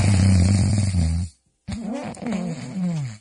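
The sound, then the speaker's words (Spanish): A person imitates their own snoring with a deep, rumbling inhale, pauses briefly, then lets out a second raspy, wavering snore-like breath, loud. “Así ronco yo.”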